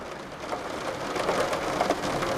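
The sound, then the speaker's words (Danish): Heavy rain drums steadily on sloped roof windows of a top-floor apartment in Paris, a dense, continuous patter with scattered sharper drops striking the glass. No one speaks. “Vi bor op under taget, og regnen trummer på skråvinduerne.”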